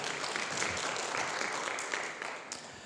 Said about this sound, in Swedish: Ja, det är väl en applåd.